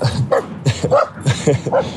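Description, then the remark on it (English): A dog barks and yips repeatedly in quick succession, roughly six sharp barks over a couple of seconds, loud and insistent with only brief gaps between them. “Well, the dog's gonna keep barking”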